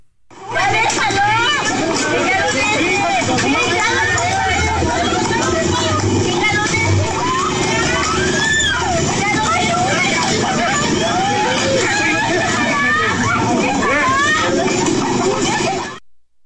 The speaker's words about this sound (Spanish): Bueno, pues así suena esta riña